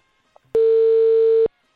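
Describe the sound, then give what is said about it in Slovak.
A single steady electronic telephone busy tone sounds for just under a second, loud and clear, after a faint click, after the other party hung up the call. It has a flat, buzzing pitch with no voices present. “No a v tomto momente nám položil, tak sme volali, dokým sa to nepodarilo,”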